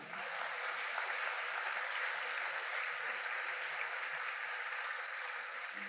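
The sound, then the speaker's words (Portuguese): An audience claps in sustained, dense applause, a steady wash of many hands at an even loudness for several seconds with no clear voices standing out. “Então dá um forte aplauso ao nome do Senhor Jesus.”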